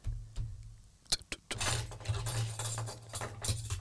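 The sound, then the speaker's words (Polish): Keys jangle and clink, followed by the clack of a lock turning and the front door of a house being pushed open, with a low rumbling hum running underneath throughout. “Otwieram drzwi do domu.”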